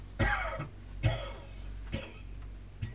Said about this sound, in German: Nehmen Sie sich ein wenig in Acht. Sie husten mir das ganze Gesicht voll Sand.